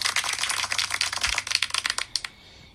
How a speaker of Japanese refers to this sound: 私の友達が子供を産みましたこういう時に効果音使うんでね、拍手